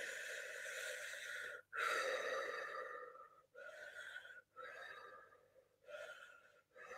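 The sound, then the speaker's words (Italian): A series of deep, forceful breaths through the mouth, loud, repeating in a steady rhythm with brief pauses between each breath and no talking, as a person takes about nine powerful breaths while pressing two fingers together in a hand mudra during a breathing exercise. “Premere, fare circa nove respiri potenti dalla bocca e rilasciare.”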